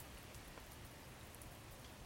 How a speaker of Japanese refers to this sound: 夜に入ってからも雨は止まなかった